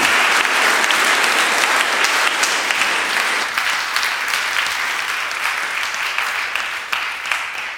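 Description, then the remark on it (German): An audience claps steadily, a dense wash of many hands that stays loud throughout and eases slightly after a few seconds, with no talking over it. “Gut, geben wir Ihnen einen Applaus.”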